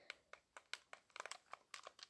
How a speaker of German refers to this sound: Ich habe so eine neue Beschäftigung gefunden. Ich klicke einfach auf einem ausgeschalteten Controller rum. Das macht voll Bock.